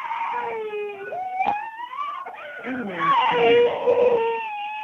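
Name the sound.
young child crying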